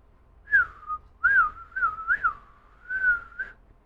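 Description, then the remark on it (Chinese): A bird call from a big tree, sounding like a human whistle imitating one: five or six bright warbling phrases with gliding, mid-high pitch, fairly steady in loudness and heard alone without any talking. “忽然，从大树上传来一声鸟叫”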